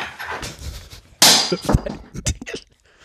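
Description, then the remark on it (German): A small metal teaspoon, tossed like a coin, lands with a sharp bright clang, followed by several quick lighter clatters and rattles as it bounces and settles on a hard surface. No one speaks. “Ich werf mal einen Teelöffel.”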